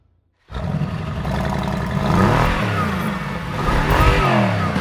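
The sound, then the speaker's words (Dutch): The big V8 engine of a black two-door Mercedes-Benz convertible fires up after a moment of silence and settles into a loud, rumbling idle, then revs up in throaty surges with a rising and falling pitch. “cabrio, twee deurs, zwart en een dikke achtslinder. Geluid graag. Ik slinger hem aan voor je.”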